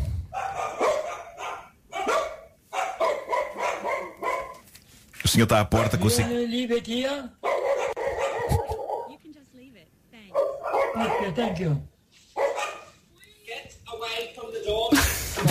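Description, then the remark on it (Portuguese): A dog barks at the door in short, loud bursts, alternating with stretches of people talking; the barking comes in a couple of clusters and overlaps the voices. “E o pobre homem obedece com ar claramente angustiado, quando na verdade o afasta da porta Era dele para, para o cão. E existe o som disso, nós temos aí.”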